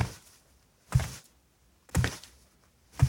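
Slow, heavy footsteps thud about once per second, each a deep, booming impact that rings out briefly before the next, with near silence between them and no voices.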